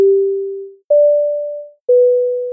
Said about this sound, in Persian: خلاصه چندین بار با صدای دینگ و دینگ و روشن شدن چراغ کمربندهای ایمنی بیدار شدم